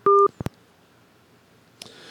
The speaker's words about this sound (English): Well, we just lost Cynthia, so it's kind of weird. Phone just went dead here.